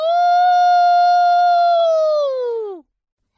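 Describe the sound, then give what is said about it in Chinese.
A wolf howls in one long, steady, fairly high note that slides downward and fades after nearly three seconds. A brief silence follows before another howl begins. No one speaks. “为什么狼喜欢在黑夜里嚎叫？”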